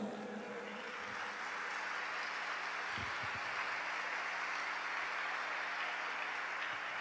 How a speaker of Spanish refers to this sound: Apláudele al Señor.